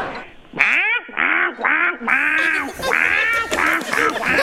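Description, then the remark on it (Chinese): A voice imitates a duck as one of ten requested animal sounds, giving a run of about eight loud, nasal, buzzy quacks in quick, slightly uneven succession, with no talking in between. “鸭子叫啊”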